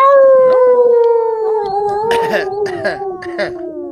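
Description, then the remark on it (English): A person does a long wolf-like howl, one sustained tone sliding slowly downward for several seconds, loud, with bursts of other voices breaking in over the second half. “the wolves say.”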